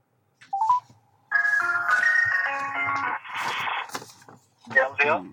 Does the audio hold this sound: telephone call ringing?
yes